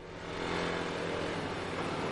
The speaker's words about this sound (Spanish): Un policía en moto va por el puerto. Entra en el barco.